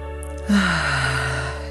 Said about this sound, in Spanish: Así, toma una respiración profunda, vamos a conectar con tu presencia, inhalo,